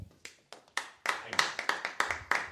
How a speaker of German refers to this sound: Jetzt, und jetzt klatschen mal die Leute, die an die Geschichte nicht glauben.